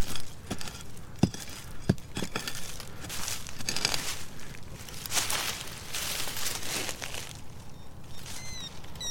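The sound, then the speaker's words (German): A small hand-forged hand pickaxe, a special digging tool, strikes and scrapes into soil: a few sharp chops early on, then steady gritty scratching and crumbly rustling of loosened earth, with no voices. “holt eine Grabehacke aus dem Rucksack und bearbeitet den Boden.”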